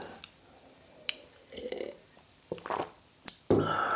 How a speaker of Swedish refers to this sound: Mm, jag får dricka lite vatten. Förlåt.